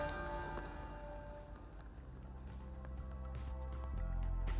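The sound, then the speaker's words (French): Church bells ring out at midday in a steady, overlapping peal, their sustained tones hanging in the air with repeated strikes, over a low background hum, with no one speaking. “À midi aujourd'hui, les cloches des églises ont retenti dans tout le pays.”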